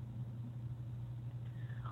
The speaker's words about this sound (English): Well, and I'm sorry for the music. There's cars driving by.